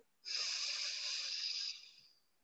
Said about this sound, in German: Das heißt, wir verschließen mit dem Daumen das rechte Nasenloch, atmen durch das linke ein, verschließen das linke Nasenloch und öffnen das rechte, atmen rechts aus. Hier wird nur durch die Nase ein- und ausgeatmet.